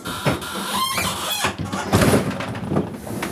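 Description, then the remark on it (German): A heavy aircraft door mechanism clunks open automatically after the door lever is pulled up, followed by a loud, continuous rushing hiss as the evacuation slide inflates, with scattered rattles and thumps throughout. “Ja, Tür öffnet sich automatisch und die Rutsche lässt sich jetzt auf.”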